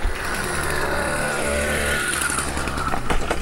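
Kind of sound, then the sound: vehicle, motorcycle passing by outside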